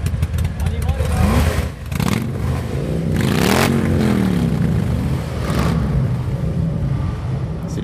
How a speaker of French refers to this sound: Ici à Saint-Étienne, rue Pierre Lotti, avec euh, tous ces moteurs qui vrombissent. Mais ça, c'est le rassemblement Harley, puis ça fait partie aussi euh, de l'esprit Harley.